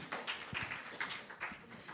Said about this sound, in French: On peut l'applaudir avant et après aussi.